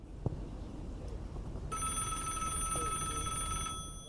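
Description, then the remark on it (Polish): A telephone bell rings once in a sustained, bright trill lasting about two seconds, fairly loud, over a low background rumble. Nobody speaks. “wkrótce otrzymuje niespodziewany telefon.”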